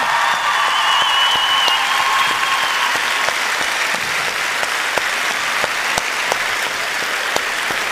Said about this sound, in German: Erstmal einen Applaus für Fabio